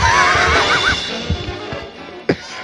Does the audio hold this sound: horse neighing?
yes